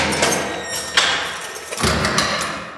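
A small inspection hatch in a door slams shut with a sharp knock, and moments later the heavier door itself scrapes and thuds open, with a faint mechanical hum in the background.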